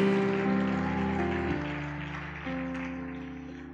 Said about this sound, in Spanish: Habrá alguien que se alegre, que aplauda más fuerte porque Él está aquí.